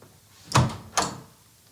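A door opens or closes, making two quick knocking clunks about half a second apart, the first with a dull low thud.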